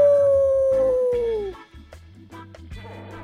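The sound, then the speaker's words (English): A dog named Ryu lets out one loud howl, a long sustained tone that slides slowly downward for about a second and a half before breaking off, followed by quieter background noise. “You know, she like she likes to howl.”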